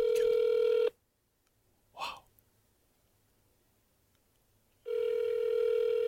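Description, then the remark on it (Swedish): A phone call to Jennifer Lopez ringing out: a steady, buzzy ringback tone sounds, cuts off for about four seconds of near silence with one soft breathy noise, then the tone returns. “Oh, ringer J Lo.”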